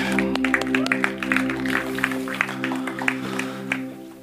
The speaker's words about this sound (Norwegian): Tusen takk, lovsangsteam, for at dere tar oss inn i tilbedelsen. Gi dem gjerne en klapp.